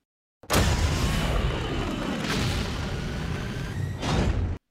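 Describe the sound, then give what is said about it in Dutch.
The turbocharged engine of a superhero car from a recent film roars loudly and steadily for about four seconds, its deep rumble surging in a few revs, then cutting off abruptly. No one speaks. “En we horen dan ook de turbomotor van de nieuwe Batmobile uit The Batman.”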